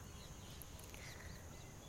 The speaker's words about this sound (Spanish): Escuchen los pericos. Estoy aquí viendo el atardecer.